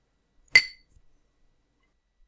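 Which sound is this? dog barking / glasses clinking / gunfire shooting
glasses clinking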